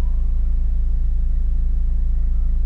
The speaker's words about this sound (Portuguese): Bem, ah, tem um carro atrás de mim a fazer um barulho enorme da correia e isto está-me a enervar um pouco